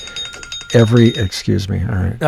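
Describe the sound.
An old-school phone ringtone trills in quick, steady pulses at a high pitch for a moment before a person starts talking loudly over it.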